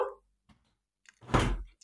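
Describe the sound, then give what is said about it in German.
A door is pushed shut, ending in one solid, muffled thud after a couple of faint clicks and shuffles. No voices, just the brief closing sound. “Machst du die Tür zu?”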